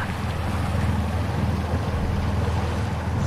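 A water taxi boat's engine drones steadily with a low, throbbing rumble as the boat leaves a jetty and disappears into the distance, mixed with wind buffeting the microphone and water sounds; no one speaks.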